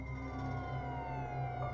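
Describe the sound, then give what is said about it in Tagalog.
An emergency vehicle siren wails steadily and loudly, its tone gliding slightly downward over a brief stretch, with a low rumble of traffic underneath and no voices; at the scene of a road accident between a motorcycle and a car, with police and an ambulance present. “May pulisya at ambulansya.”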